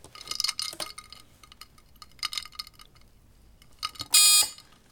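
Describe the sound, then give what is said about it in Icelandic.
Ice cubes crackle and pop in water in several short bursts of tiny clicks and snaps, followed at the very end by a brief, loud electronic beep. “Er þetta svona klakar í vaskanu? Nákvæmlega, þarna er það. Þetta eru ísmólar í vatni.”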